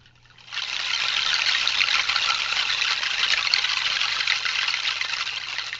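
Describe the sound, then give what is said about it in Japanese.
A bunch of thick hanging plastic tapioca straws clatters together in a dense, continuous rush that sounds like powerful flowing water, starting after a brief pause and staying steady and fairly loud, with no voices. “これはあのタピオカストロー、太いストローを使っています。”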